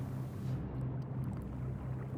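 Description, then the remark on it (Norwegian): The crew of the ship Mont Blanc rowing a boat toward land, heard as a steady low rumble with a continuous wash of water, fairly loud, with no voices. “Mannskapet på Mont Blanc ror mot land.”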